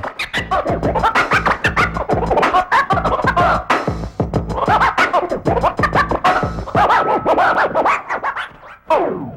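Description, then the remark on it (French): Rapid, rhythmic vinyl record scratching by a DJ abruptly spinning the record backwards to return the instrumental sequence to its start, loud, with sharp back-and-forth bursts cutting over a steady beat-driven backdrop, no voices present. “fait tourner le disque à l'envers brutalement pour remettre la séquence instrumentale au début. Résultat, un grand coup de scratch.”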